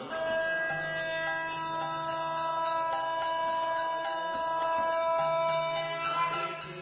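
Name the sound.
timer going off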